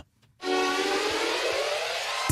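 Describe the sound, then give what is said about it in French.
An FM radio station's jingle made for a nickname opens with a loud, bright sustained chord after a short silence, holding a steady, brassy, harmonically rich tone without pause. No one speaks. “Mais du coup, quitte à avoir un sobriquet, autant avoir un jingle.”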